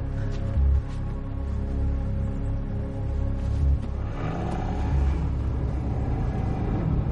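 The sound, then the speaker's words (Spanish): A car engine runs with a steady low rumble, then picks up and revs as the car is started and pulls away, driving off toward the main road. No voices are heard. “Arranca el coche con angustia y conduce rumbo hacia la carretera principal.”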